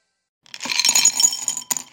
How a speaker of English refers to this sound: That's the sound of Brach's jelly beans being poured into a candy bowl.